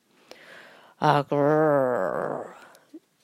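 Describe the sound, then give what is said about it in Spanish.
A voice imitates a wolf waking up: a short sharp intake, then a long, close, drawn-out yawning groan that slides downward in pitch and fades, with no other talk. “hizo el lobo al despertar bostezó, se desperezó y salió de la madriguera.”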